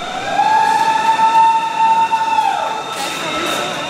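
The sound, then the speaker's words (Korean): The first train pulls into the reopened WTC Cortlandt subway station in New York on September 8, loud, its steady high-pitched motor whine riding over a broad rumble before cutting off, leaving a noisy hiss of station sound. “(9.11) 테러 17주년을 며칠 앞둔 지난 9월 8일 WTC 코틀랜드 역으로 첫 번째 열차가 들어옵니다.”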